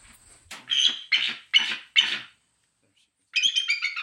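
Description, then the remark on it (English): A female eagle gives four harsh, barking calls in a steady rhythm, loud, followed by a pause and then a burst of rapid chattering notes. “That's her bark.”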